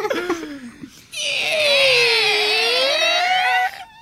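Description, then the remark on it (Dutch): A heavy vault door creaks open with a long, loud, wavering squeal that holds for over two seconds before cutting off, preceded by a few faint chirpy sounds. “Ja, de, de deur klinkt zelfs wat vrolijker vandaag.”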